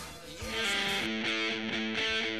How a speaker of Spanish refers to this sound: vamos con un demita de …, …, loco. Suena así.